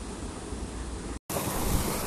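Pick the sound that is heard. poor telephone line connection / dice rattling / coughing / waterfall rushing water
waterfall rushing water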